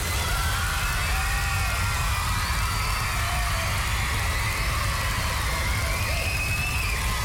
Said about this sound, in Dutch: Dus kom uit je luie stoel. Geef ze een hartelijk applaus